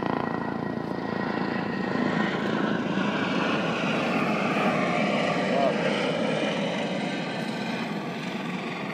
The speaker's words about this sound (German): jetzt kommt wirklich der Helikopter direkt auf uns zu